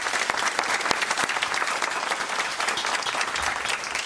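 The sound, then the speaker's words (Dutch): Sustained applause for everyone at the close of the season, a dense steady patter of many hands clapping at an even loudness for several seconds, with no voices standing out. “ja, we gaan een applaus vragen aan iedereen.”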